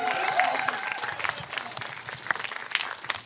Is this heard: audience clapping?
yes